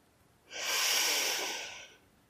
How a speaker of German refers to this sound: Wir atmen nochmal gemeinsam ein.